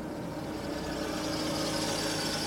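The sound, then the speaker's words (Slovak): A car engine hums steadily with a low rumble, growing slightly louder as the car approaches a building. No voices, just the continuous motor sound. “Dodové snenie preruší zvuk motora. K budove prichádza auto.”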